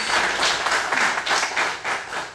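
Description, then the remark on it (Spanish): An audience breaks into applause for the Lord: dense, steady clapping from many hands, swelling in a few rhythmic surges over a couple of seconds, fairly loud with no voices on top. “Dale aplauso al Señor, mi hermano.”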